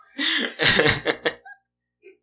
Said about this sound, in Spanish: Ay. Salud. Ese eructo de tío, güey. Perdón, no, ese no fue de tío, ese fue de hombre.